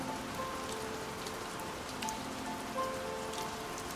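Steady rain patters on a surface at night in a continuous, even hiss with scattered droplet taps, while soft sustained piano tones drift faintly underneath. No one speaks.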